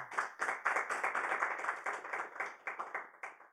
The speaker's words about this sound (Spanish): Vamos a dar fuertes palmas al Señor.